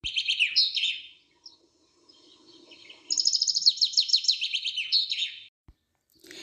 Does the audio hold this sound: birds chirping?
yes